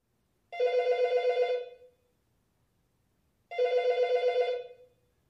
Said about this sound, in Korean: 사무실 전화기가 울려댔기 때문에 M은 자신의 공상을 재빨리 접고 전화기를 들었다